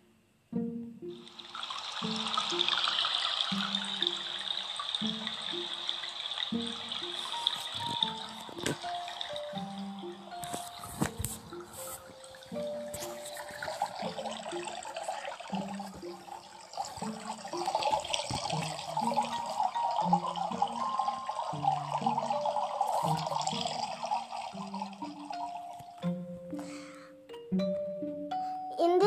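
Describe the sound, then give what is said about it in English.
Water trickles and burbles steadily around rocks and stones in a clear forest stream nearby, a continuous bright splashing with soft melodic tones ringing along beneath it. “The water trickles around rocks and stones.”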